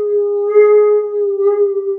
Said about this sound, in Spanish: Sí, porque, porque tiene mi hija una alarma en su cuarto a las 8 menos 20, no sé por qué razón, pero tiene un pitido que por alguna razón al perro le molesta. Se lo está ah, escucha al perro, no al pitido.